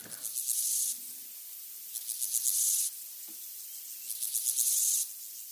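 A grasshopper in a meadow stridulates in three raspy, buzzing bursts of about a second each, separated by short pauses, fairly loud with a faint outdoor background.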